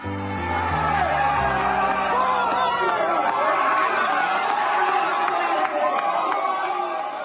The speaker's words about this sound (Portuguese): meu bairro da Vila Madalena aqui parece final de Copa do Mundo, assim, tá? Tô ouvindo ao longe aqui também.